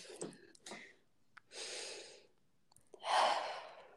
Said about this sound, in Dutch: Ja, en, en eh, ze zeggen soms ook één ademhaling, één bewuste ademhaling. Ja, zullen we dat even doen? Ja, oké, let's go.